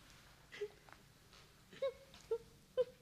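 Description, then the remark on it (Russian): A frightened girl cries softly behind a stove, letting out four short whimpering sobs at uneven intervals. The sound is quiet, with no talking. “Перепугалась давеча, вот и плачет за печкой.”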